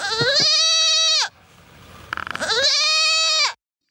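Goats bleat twice, each a loud, wavering, nasal cry lasting about a second, separated by a short pause with faint rustling, with no talking.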